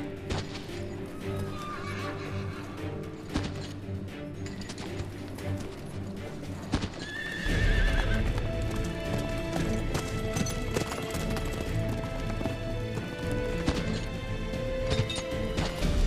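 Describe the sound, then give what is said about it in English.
Horses gallop with a dense, rapid clatter of hooves that grows louder partway through, while a horse gives a brief whinny; Prince Edward is out riding with his captors, swapping horses to find the fastest. No one speaks. “He even allows him out riding. So Edward plays a game with his captors, swapping horses to find the fastest.”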